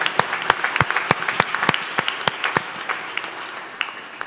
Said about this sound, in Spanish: Un aplauso para ellos desde Puerto Rico. Les amamos.